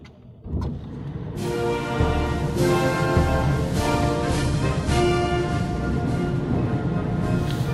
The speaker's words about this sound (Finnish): Nyt on pakko laittaa kuule moottorikäyntiin, muuten me ei nähdä enää ulos.